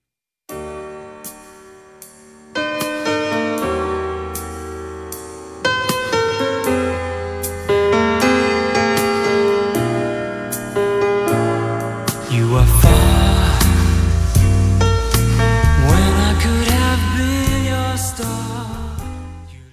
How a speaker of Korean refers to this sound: 노래 한 곡 듣겠습니다.